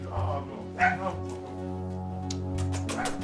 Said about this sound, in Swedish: Olle visar upp senaste familjemedlemmen, en liten hund.